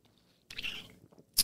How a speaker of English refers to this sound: Oh my gosh, my water bottle just fell down put it on top of my phone.